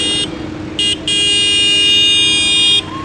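The horn of an MB-Truck blares in three loud blasts: a short one, a second brief toot, then a long sustained honk, all with a bright, steady tone over a rumbling engine.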